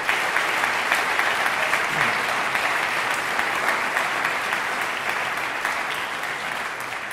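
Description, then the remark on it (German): Audience applause for award winners at an award presentation fills the whole stretch, a dense, steady wash of many hands clapping at an even loudness that eases off only slightly toward the end, with no speech over it. “Das seid ihr ja schon. Applaus”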